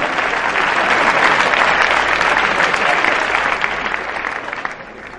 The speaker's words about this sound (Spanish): Pues, gracias, ¿eh? Están aplaudiendo hasta ella.